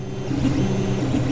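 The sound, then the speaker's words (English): A 3D printer in a warehouse near the Rexburg-Salem border completing a 36-hour print of an extra large temple replica in white plastic, its motors giving off a steady mechanical whir whose pitch rises and dips in short sweeps, continuous and moderately loud with no voices. “This is the sound of a 3D printer completing a 36 hour print of an extra large temple replica at a warehouse just over the Rexburg Salem border.”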